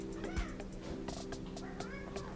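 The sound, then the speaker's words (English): A cat meows plaintively several times in quick succession while flying on a plane, over a steady droning hum like engine or cabin noise. No one speaks. “And uh, apparently, my cat doesn't like to fly either.”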